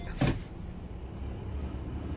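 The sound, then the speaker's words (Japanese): A truck rumbles by on the road, a steady low engine and tire drone with a short, sharp hissing burst near the start. No one speaks. “まあ、今ちょっと車来て危ないんです。トラックがね”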